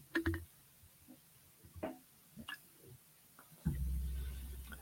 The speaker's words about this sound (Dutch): Even slokken hoor.